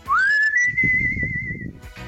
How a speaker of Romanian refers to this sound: Și uh, dacă tot suntem uh, la fluierat, șuierat, da, da. Um, hai să mai difuzăm așa un șuierat, un fluierat uh, celebru, cum e de exemplu ăsta.